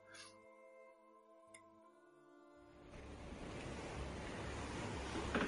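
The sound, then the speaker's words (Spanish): Low, steady droning tones fade into a swelling roar of rough sea waves that grows louder and rushes continuously to the end, as a ship with dozens of black sails and a serpent-head prow cuts through the waves. “En la distancia veis un barco como ningún otro Docenas de ominosas velas negras se elevan sobre el mar agitado y la proa, con una temible cabeza de serpiente, corta las olas a una velocidad alarmante.”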